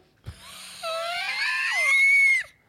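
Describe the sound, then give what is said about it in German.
A voice imitates a shrill, girlish scream, one sustained, wheezy and raspy shriek, its wheeze put down to a smoker's lung, that rises and wavers for about a second and a half before cutting off abruptly, preceded by a brief thump. “Und das. das äh, Mädelgeschrei. Ja, aber das ist, der, das ist die Raucherlunge.”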